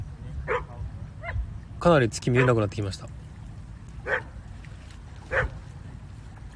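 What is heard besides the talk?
dog barking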